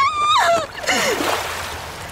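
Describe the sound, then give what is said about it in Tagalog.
A short falling scream cuts off into a heavy splash as a person thrown with full force hits river water, followed by churning, bubbling water noise that slowly settles. “Buong lakas niya akong tinapon sa ilog.”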